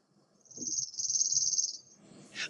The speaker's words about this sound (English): But let me do the chipping sparrow.